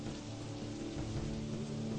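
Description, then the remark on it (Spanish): A terrible storm: heavy, steady rain pours down in a dense, continuous hiss, with a deep low rumble of thunder rolling underneath, loud throughout with no voices. “Se desata una terrible tormenta, una tormenta ante la cual los generales no pueden hacer absolutamente nada.”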